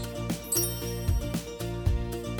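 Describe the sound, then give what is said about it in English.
A cluster of bright, sustained chime-like tones rings out, with several struck notes overlapping in a steady rhythm over a low, resonant hum; fairly loud, with no voices. “You will know when to start listening when you hear the chimes ring like this.”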